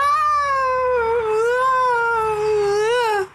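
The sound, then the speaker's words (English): A voice imitates a toddler's tantrum scream: one long, loud, high wail held on a single breath, wavering in pitch, with a final upward push before it abruptly cuts off. “The way little kids scream and yell and have tantrums reminds me of like heavy metal singers.”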